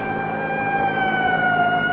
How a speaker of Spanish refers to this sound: Entonces ese auto es de la policía. Debe ser una patrulla. Ahí viene.